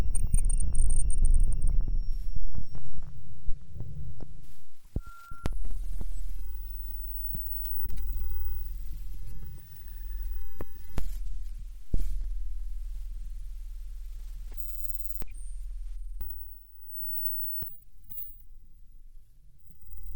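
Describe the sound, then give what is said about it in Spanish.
Experimental electronic music: a piece (2010) by two musicians, edited excerpts of live improvised concerts from 2005 to 2010; a heavy, throbbing low drone holds steady beneath sparse high whistling tones, brief mid-range beeps and scattered sharp clicks, with no voices. “La obra que estamos escuchando, …, de 2010, de …, consiste en versiones editadas de extractos de presentaciones en vivo entre 2005 y 2010, cuando … ofrecieron una serie de conciertos”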